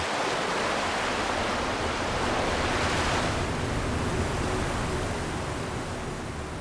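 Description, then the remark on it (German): Continuous loud rushing wash of water and spray with a steady low rumble underneath, as waves splash against the metal hull of a ferry moving slowly through the Beagle Channel toward Tierra del Fuego. “Langsam schnauft die Fähre durch die Wellen. Die Gischt spritzt gegen den Metallbauch des Schiffes und treibt den Blick zum Ufer nach Feuerland.”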